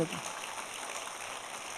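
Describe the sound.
A brief burst of scattered, half-hearted clapping from a crowd, a steady crackly patter at moderate volume, with a short voice fragment right at the start.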